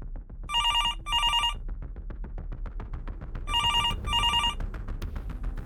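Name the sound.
telephone ringing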